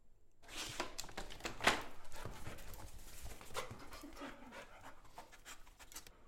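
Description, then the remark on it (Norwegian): A dog trained to search for one scent sniffs hard and fast, a steady stream of quick, breathy snuffles, with one sharper snort near the start and no talking. “Det går det gøy å høre på når, når nesen går så intenst.”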